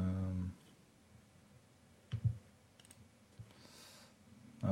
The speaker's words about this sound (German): Ja, hm, ich klicke mich da gerade mal so ein bisschen durch noch.